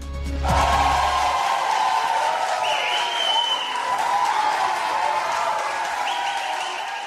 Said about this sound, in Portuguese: Mais aplausos para essa deputada Mara Rocha. Vamos lá.